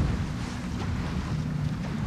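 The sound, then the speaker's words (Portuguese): A sailboat sailing downwind, with the wind from behind, gybes in steady wind, the sail swinging across to the other side amid constant loud wind rush and water noise buffeting the microphone, with no voices. “Entrar à popa agora navegar à popa, isto é, com o vento por trás, cambou, rodou a vela para o outro lado.”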